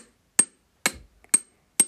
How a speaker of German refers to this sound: Zum Beispiel ein Glas, mit dem sie mit einem Stift dagegen stoßen.